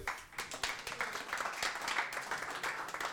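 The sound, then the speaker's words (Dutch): An audience applauds for Pim with a dense, steady patter of many hands clapping, sustained evenly for a few seconds without any voices over it. “Applaus voor Pim.”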